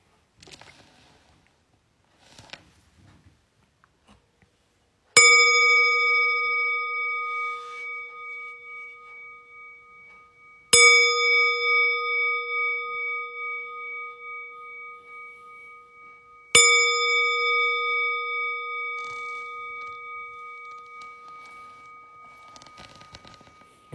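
A meditation bell rings three times at even intervals to mark the start of a meditation practice, each strike sharp and bright with a long, shimmering resonance that slowly fades before the next. Faint rustling precedes the first strike.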